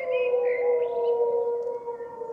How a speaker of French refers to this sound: Soudain, ce hurlement lointain mais reconnaissable entre tous. Instant sonore fugace mais saisissant. Un loup gris lance un appel.